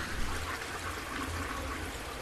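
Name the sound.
toilet being flushed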